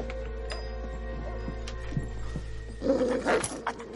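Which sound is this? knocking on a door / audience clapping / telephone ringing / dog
dog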